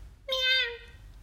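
A single drawn-out meow, made by a human voice in London imitating a cat, rising briefly then fading over about half a second, clear against a quiet background.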